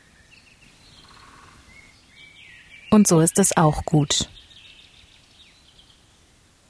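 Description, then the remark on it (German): Faint birdsong chirps drift through a quiet forest, with small high tweets before and after a short burst of a man's speech. “Nur zwitschernde Vögel, einen klopfenden Specht.”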